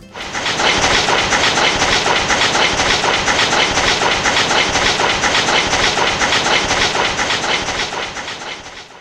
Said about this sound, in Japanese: カタンカタンじゃどれでも同じなところが上り勾配だともうブッブッブッブッブッブッブッちょっとその音聞きますよこの上り勾配あのねそうだなデコイチの第一動輪ピストーン時速30キロこれ聞いてくださいちょっと。